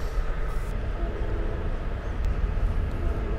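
Steady low rumble and rattle of a passenger train rolling along the tracks toward Antioch Pittsburg Station, heard from inside, with continuous wheel noise and faint clicks, no voices.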